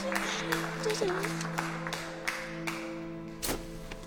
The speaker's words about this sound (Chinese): 众人是纷纷鼓掌，只有场下一个小男孩一语道出真相。